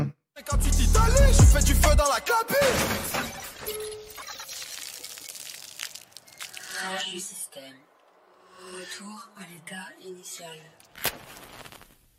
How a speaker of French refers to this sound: ça finit en crash du système avant, on va dire, les 3 minutes normales d'un morceau